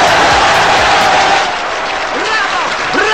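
A large audience breaks into loud, sustained applause after a verdict on the film The Battleship Potemkin, a dense wash of clapping mixed with crowd cheering and a few rising whistle-like cries, holding steady throughout.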